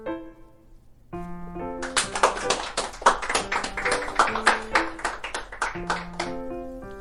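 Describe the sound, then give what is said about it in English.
Rhythmic hand clapping, a steady series of sharp claps over a bright, cheerful musical backing with sustained melodic tones; no voices, the clapping starting a second in and continuing to the end. “That sounds like clapping”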